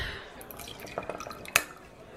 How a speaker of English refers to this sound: Oh, God. Pour me another one, please.